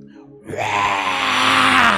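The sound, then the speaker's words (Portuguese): A voice imitates a sudden scream from the owner of a candomblé centre during a wake at Irajá cemetery: after a brief low murmur, a loud, sustained, strained shriek bursts in and holds, its pitch climbing slightly toward the end. “No meio do velório aquele grito característico, abriu aquela clareira.”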